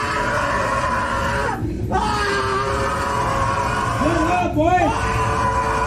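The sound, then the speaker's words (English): A man screams and bellows loudly and almost nonstop on a bus or train, his raw voice wavering in pitch, with a couple of brief catches for breath before the yelling surges again, while another rider kicks him down the aisle. “Well, one of the riders is now uh, sort of kicking the guy who's screaming down the aisle, trying to get him off of the bus or train or whatever.”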